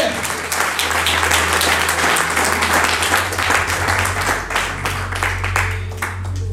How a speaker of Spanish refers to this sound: Alguien dice amén y alguien puede de aplaudirle a Jesucristo en esta tarde?